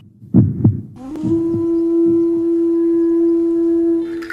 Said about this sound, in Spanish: emite latidos, pulsaciones que se escuchan cual grito de resistencia.